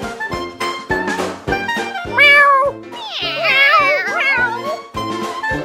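Cat meows ring out over a steady rhythmic backing, one short meow followed by a longer, wavering yowl, loud.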